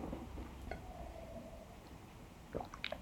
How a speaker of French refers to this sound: Excuse-moi, boire une petite gorgée d'eau.